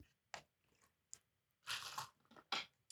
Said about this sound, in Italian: La mia voce come si abbassa quando bevo l'acqua. Aspetta, Comunque mentre beve l'acqua...